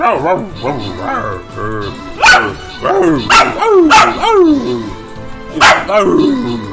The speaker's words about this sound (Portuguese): Relaxa, cachorro.